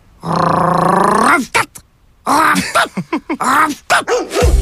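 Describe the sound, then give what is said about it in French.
A dog vocalizes loudly: one long, drawn-out howling whine, then a string of short barks and yips in an uneven, almost speech-like rhythm. “J'ai rêvé que le chien parlait.”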